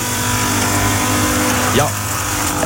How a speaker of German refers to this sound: Ein bisschen verwirrender Ton. Ich weiss, ja. Er ist nicht ein Mixer, ist auch kein Häcksler. Nein, es ist ein Laut. Laubbläser. Laubbläser, ähm, sehr ein heikles Thema.